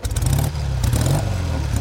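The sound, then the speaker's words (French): A car engine revs loudly, its deep growl rising and falling in pitch over a couple of seconds with a rough, throaty texture and no voices. “On envie de mettre le bruit de, ta, de ta voiture, mais c'est une 4 roues, donc euh, on va voir si on peut faire ça.”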